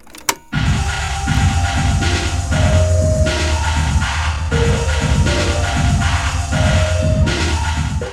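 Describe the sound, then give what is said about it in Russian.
An isolated reverb and delay effects track: washy, echoing electronic sound with a steady pulsing low rhythm and smeared sustained tones, loud and continuous after a brief quiet opening, with no voices. “на эту дорожку ты вешаешь эффекты всякие, типа реверб, дилей или что-то такое”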